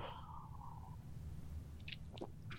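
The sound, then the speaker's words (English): A quiet sip of scotch from a glass: a faint ringing tone fades at the start, then a few soft wet slurping and swallowing sounds over a low background hum, with no talking. “let me get my last sip of scotch here.”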